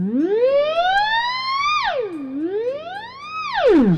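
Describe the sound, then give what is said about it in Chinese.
A loud electronic tone glides slowly upward, swoops down, then rises and falls again, like the wailing siren of a fire engine or ambulance coming from afar. It is bright, buzzy and harmonic, with no voices. “好像消防车来了，还是救护车远远的过来了哦。”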